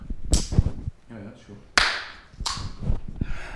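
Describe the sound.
A single sharp, loud, deliberately pointless hand clap cracks out amid people talking, with a couple of other brief percussive snaps.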